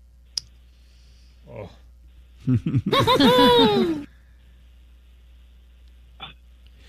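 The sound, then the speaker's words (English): The Pillsbury Doughboy's trademark giggle bursts out for about a second and a half, a bright, high-pitched quick string of rising 'hoo-hoo' notes. A faint click comes just before it, with brief soft sounds on either side. “That's the Pillsbury Doughboy. When you punch him in the stomach, I mean, when you touch him”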